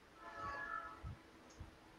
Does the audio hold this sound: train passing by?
yes